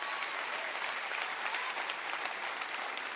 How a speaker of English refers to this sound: Anyhow, clap your hands, rejoice in that.